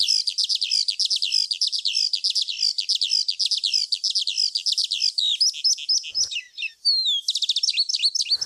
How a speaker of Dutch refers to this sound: Laten we even luisteren naar het prachtige zang van de Veldleeuwerik.